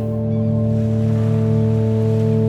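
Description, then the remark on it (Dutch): Steady, loud roar of sea waves and wind at the sea, heard from a dike, continuous without breaks, with a low droning hum running underneath. No one speaks. “Hey, goed dat je komt uitwaaien aan zee.”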